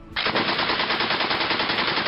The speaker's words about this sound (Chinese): 听着越来越近也越来越密的枪声。